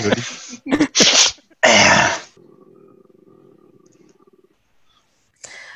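A loud, close sneeze, preceded by a few sharp gasping breaths and ending in a big explosive burst, followed by a low, steady rumbling purr that fades out.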